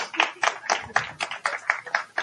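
An audience claps, a quick steady patter of hands beating in a roughly even rhythm for a couple of seconds, moderately loud with no voices over it.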